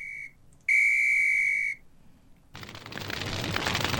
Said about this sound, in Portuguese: Apita, senador Belo.